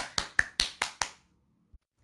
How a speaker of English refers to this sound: So someone, someone clap for me. Someone, you know what? I'm just gonna clap for myself because I'm alone and that's really awkward.